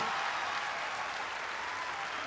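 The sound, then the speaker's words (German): Dense, sustained, frenetic applause from a large crowd greeting the announced launch of the HBO Now streaming service with partner Apple, a continuous wash of rapid clapping that stays steady and loud throughout with no voices standing out. “Frenetischer Applaus.”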